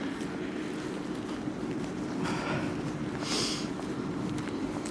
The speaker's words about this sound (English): And over there, the school groundsman is mowing the lawn. Big orange tractor whizzing up and down.